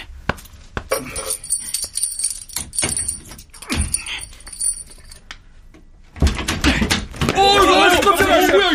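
Keys jingle and scrape with sharp metallic clicks as a key is used to open a door locked from the inside, fairly loud; after a brief pause a loud, wavering vocal sound takes over at the end.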